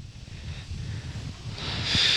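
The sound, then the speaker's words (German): Wind buffets a microphone with a low, fluttering rumble and steady hiss. It grows brighter and louder toward the end, and no one speaks. “Und ähm, wenn es so windig ist, glaube ich, versuche ich mal.”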